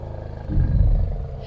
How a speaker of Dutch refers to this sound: En toen kwam er een olifant voorbij de grond opschuddend,